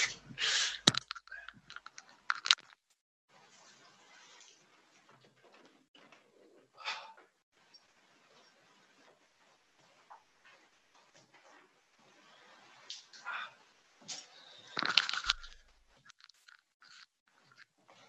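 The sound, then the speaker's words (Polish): A window being closed because a storm seems to be coming: scattered rattling clicks and creaks, a few sharper knocks, then a louder bang as it shuts, followed by faint handling noise. No one speaks. “I przepraszam bardzo, zamknę okno, bo chyba będzie burza.”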